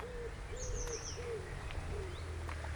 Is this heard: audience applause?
no